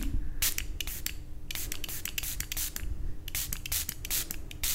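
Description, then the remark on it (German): A spray bottle carefully mists water onto somewhat dried plants in an art studio, in quick bursts: around a dozen sharp hissing puffs in two clusters, fairly loud, with a low background hum and no talking. “Ähm, ich sprühe die mal mit Wasser nochmal vorsichtig ein, dass sie wieder so aussehen wie vorhin.”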